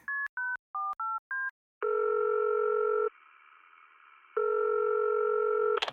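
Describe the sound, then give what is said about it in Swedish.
Five quick keypad dialing beeps, then a phone's ringing tone as a person is called: two long, steady electronic rings separated by a silent pause, clear, with no one talking. “Och den personen ska vi ringa upp nu.”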